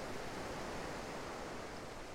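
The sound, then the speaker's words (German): A steady, soft wash of calm sea water, with gentle waves lapping continuously at a beach in a bay on an island surrounded by large old mountains and rocks, with no voices and no distinct breaks or splashes. “Und deshalb ist das Wasser auch hier so ruhig und beruhigend.”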